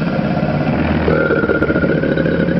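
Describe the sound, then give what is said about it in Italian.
A crocodile's deep, rumbling roar, a steady low growl that holds for a couple of seconds and thickens slightly partway through, with no voices. “E ve l'ho detto un sacco di volte il verso che fa il coccodrillo. Ruggisce così.”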